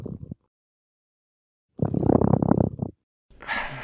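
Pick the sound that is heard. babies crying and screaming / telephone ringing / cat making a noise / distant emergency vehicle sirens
cat making a noise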